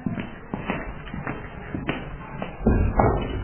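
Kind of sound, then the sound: household object, door being opened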